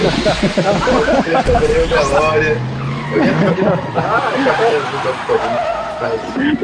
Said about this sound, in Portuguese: coloca, coloca, coloca o, o, o, som, o sound effects do, do DeLorean voltando do passado. Toda vez que ele for falar, faz.